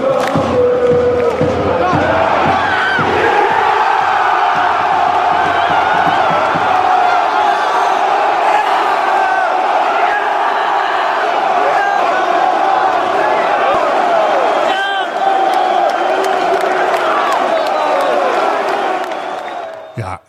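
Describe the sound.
A huge football stadium crowd at a Dortmund match with the score at 1-1 roars and cheers continuously, a dense wall of voices with shouts and whoops rising above it, interrupted by a few sharp thumps early on, staying loud throughout before cutting off.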